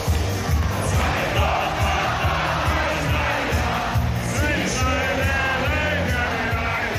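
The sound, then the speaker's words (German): A big crowd in a beer tent bawls loudly along to a song the band plays again, hands raised in the air, voices loud and raucous over steady thumping music, with cheers and yells blending into a dense, continuous roar. “Du trinkst noch eine Mass die Kapelle spielt wieder … und du hebst die Hände in die Luft und grölst laut mit”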